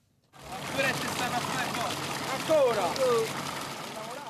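Steady splashing water runs continuously from one of the many fountains in Rome, Italy, during a heat wave, with a crowd murmuring and chattering in the background as people cool off in the water.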